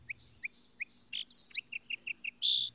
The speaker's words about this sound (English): The naked trees had a rapt, expectant look from some unreclaimed common near by came the first strain of the song sparrow.